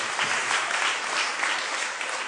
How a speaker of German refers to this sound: herzlich willkommen. Applaus